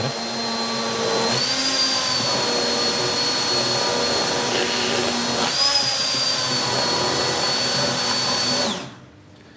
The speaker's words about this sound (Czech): Teď používáme tyčový mixer.